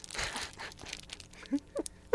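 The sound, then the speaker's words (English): Crinkly plastic trading card pack wrappers being handled and torn open, a scatter of soft rustles and crackles followed by a few sharper crinkling bursts toward the end, with no talking. “I'll open these first. People like the sound.”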